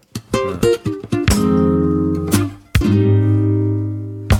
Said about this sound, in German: Die Nachlese. Alle greifen nach rechts auf ihre Haufen und ihr müsstet das sehen, Leute. so die Jingle-Melodie läuft und alle gehen in so eine konzentrierte Spannung und mischen in ihrem Stack herum.